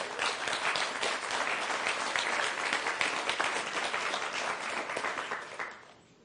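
An audience applauds steadily, a dense wash of many hands clapping at even loudness for about five seconds before fading out quickly at the end.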